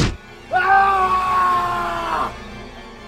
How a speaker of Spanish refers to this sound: El palo se partió en dos, parte quedó en mis manos, parte incrustada en su boca, y empezó un grito que terminó en un espantoso estertor cayó de boca al suelo y el trozo de palo le atravesó, saliéndole por la nuca.